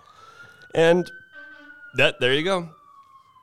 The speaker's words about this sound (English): And pardon this siren, we got i know sometimes i say sorry for the noise folks and you don't hear the noise i'm talking about i'm pretty damn sure you're hearing this siren behind me because who can't